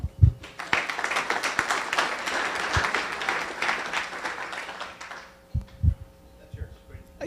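An audience breaks into a round of applause for a speaker being introduced, dense overlapping clapping that swells for about five seconds and then fades out, followed by a few low thumps and murmurs.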